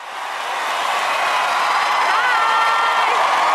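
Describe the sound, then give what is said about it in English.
A large America's Got Talent audience cheers loudly and continuously as a choir from Soweto, South Africa, gets the golden buzzer, a dense roar of excited voices with high whoops and shrieks rising out of it, swelling in the first half-second and then holding steady. “And they got the golden buzzer. This is what it sort of sounded like.”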